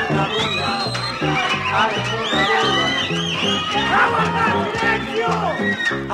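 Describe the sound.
A crowd makes a loud, continuous racket, with many voices shouting and squealing over one another in a dense, high-pitched din that never lets up.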